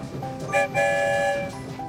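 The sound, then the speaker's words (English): A single whistle from Santa's story train sounds one steady, bright blast lasting about a second as the train leaves the station, rising over a low rumbling train background with no talking. “One whistle, we're on our way.”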